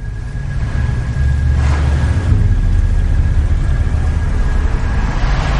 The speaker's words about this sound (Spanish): El todoterreno sale de la carretera y entra en un camino rural.